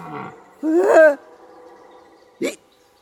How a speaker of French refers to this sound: Mais ça, c'était un brame de cerf ou je m'appelle pas Camille. Un drame de cerf Un brame, pas un drame. C'est comme ça qu'on appelle son cri pour attirer les femelles.